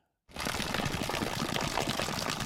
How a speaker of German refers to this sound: Frisches Wasser läuft aus einem schwarzen Plastiktank hoch auf einem Metallgestell auf dicht bepflanzte Felder.